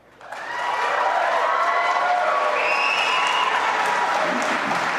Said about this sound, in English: Here, take a look at this when they cheered.